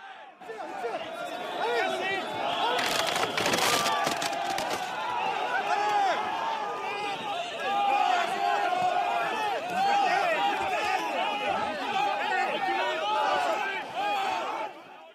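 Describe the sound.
At the Salon de l'agriculture, a dense, agitated crowd of protesters shouts and jostles with police as they try to approach the President of the Republic. A burst of sharp knocks and crashes comes early on as scuffles break out, and an enclosure gives way in the crowd surge.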